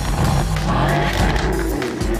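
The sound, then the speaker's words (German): A tuned car engine at a tuning meet at the Nürburgring, Germany, roars loudly and continuously, its revving pitch rising and falling with a gritty, throaty rasp, steady throughout. “Mittlerweile sind allerdings auch immer mehr Tuner mit knallendem Auspuff und röhrendem Motor in den”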